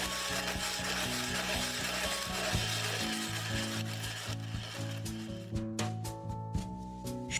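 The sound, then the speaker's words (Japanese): Ice being shaved for kakigori, a heaped Japanese shaved-ice dessert, as the shaver is turned round and round: a steady, gritty scraping and grinding that runs nearly the whole time, fairly loud, with soft music playing underneath and a few sharper knocks near the end. “かき氷を削る音”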